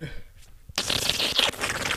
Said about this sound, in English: Damn, fam. You be slurping like that.